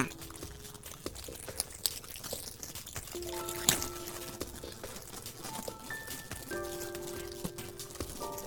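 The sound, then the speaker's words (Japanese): A plastic bag, taken out of an envelope being opened, rustles and crinkles in irregular bursts of sharp crackles, with faint steady tones humming in the background and no one talking. “ビリビリビリビリビリビリビリビリあわなんだろうこれビニール袋が出てきました”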